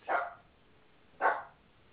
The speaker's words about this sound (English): Feed that dog, will you please?